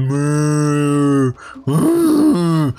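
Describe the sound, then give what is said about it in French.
A voice imitates a herd of cows with two long, low, droning moos, the first steady and the second swelling and wavering before it cuts off, loud, with no other sound. “Euh, puis ouais, man, il y a un troupeau de vaches.”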